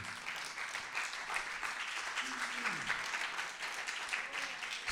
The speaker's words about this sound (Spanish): Den un aplauso fuerte al que vive.